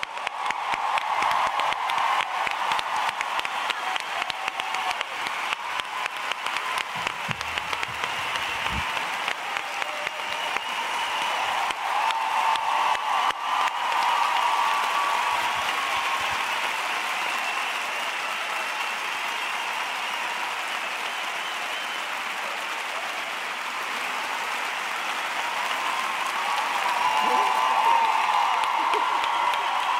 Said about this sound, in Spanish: es una mujer increíble, una cómica espectacular. y lo mejor de todo, que le encanta que la aplaudáis. Así que un aplauso gigante para Enar Álvarez.